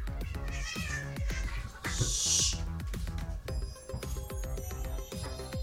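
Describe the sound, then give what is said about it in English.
Several high, thin meows from kittens overlap in quick succession, fairly loud, with a brief squealing cry in the middle; a busy, tonal background with steady rhythmic pulses runs underneath. “Now those were kittens.”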